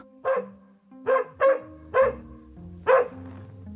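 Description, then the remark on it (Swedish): A dog tethered on a line barks five times while running around the unplowed yard of a house, in sharp, loud bursts, with a short gap before the last bark. There is no talking, only a low background hum between barks. “När vi går in på den oplogade tomten möts vi av en skällande hund som springer runt i en lina.”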